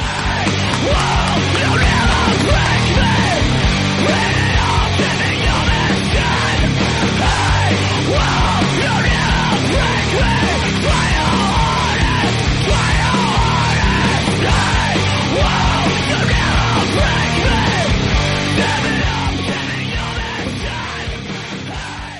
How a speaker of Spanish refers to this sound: un aplauso muy fuerte para ellos.